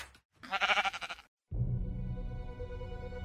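A single loud sheep bleat with a wavering, quavering tone lasts about a second, then a brief silence gives way to steady music.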